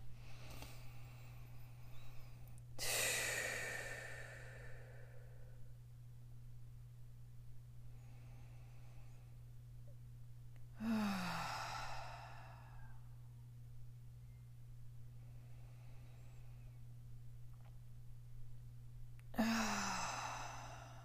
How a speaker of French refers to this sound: On respire, qu'on s'ancre dans son cœur, peu importe ce que vous faites en ce moment. On va prendre trois grandes inspirations.